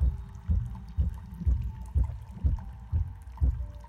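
Water drips in a steady rhythm, about two drops a second, each a soft, low plop over a faint continuous hum. No one speaks.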